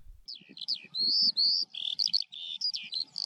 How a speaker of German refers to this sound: Das Singen der Feldlerche ist das lauteste Geräusch weit und breit, außer wenn Menschen hämmern, um einen Aussichtsturm zu bauen oder ihren Bauwagen zu flicken.